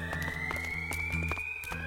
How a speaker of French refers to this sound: Soudain, une alarme retentit dans tout le transporteur. Le compresseur était en surcharge.